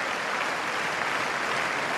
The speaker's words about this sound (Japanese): 今年は不良馬場で芝 1200m 第53回高松宮記念 G1 を迎えます9年ぶりに不良馬場で行われます今スターターがゆっくりとスタートカーへと向かっています早くも手拍子が湧き上がって